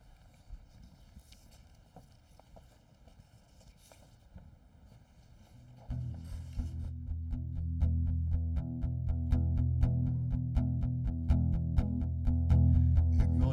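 Instrumental intro of a Christmas worship song: a soft, steady clip-clop percussion pattern opens, then a full, loud band kicks in partway through with a driving beat and no singing yet.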